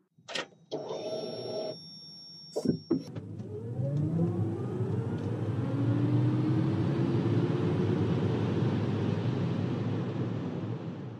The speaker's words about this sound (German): Es ist uns längst vertraut, das Suchen, Summen, Brummen von Elektroautos.